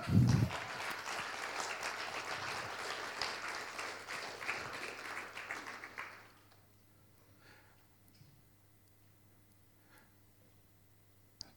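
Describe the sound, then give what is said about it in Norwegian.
An audience bursts into sustained applause for a guest, a dense wash of many hands clapping for about six seconds before it cuts off, leaving near silence with a few faint ticks. “Men skal vi gi vedkommende en god applaus?”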